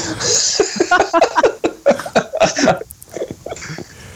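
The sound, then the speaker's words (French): A voice imitates the crackle of a taser with a quick run of harsh, buzzing bursts, loud, broken up by laughter-like breaths. “oh, il a fait claquer le taser”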